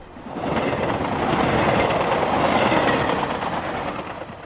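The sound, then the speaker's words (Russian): A train roars across a bridge, a loud, steady, deafening rumble with rapid rhythmic clattering of wheels, swelling and then easing slightly toward the end. “В это время поезд с оглушительным грохотом промчался по мосту.”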